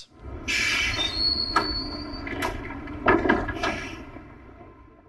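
A tram rumbles to a halt with a high, thin squeal of wheels, followed by a few clunks and the swish of sliding doors opening nearby. No one speaks.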